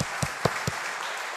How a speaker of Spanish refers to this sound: Más onda tu aplauso.